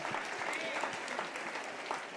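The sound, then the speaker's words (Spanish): An audience applauds loudly for the Lord during a Spanish-language sermon, a dense, steady wash of many hands clapping at once that keeps an even intensity from start to finish. “Denle un aplauso fuerte al Señor aquí.”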